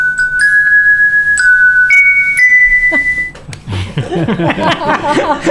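A little bell jingle sound effect, played for minister Luciana Santos, rings out as a short run of bright, sustained chime tones stepping upward in pitch, followed by people laughing and talking.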